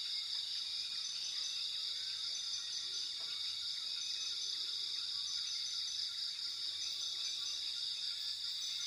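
Dense rainforest ambience: a constant high-pitched buzz of insects fills the air, with occasional faint bird calls chirping. Steady and unbroken, no voices.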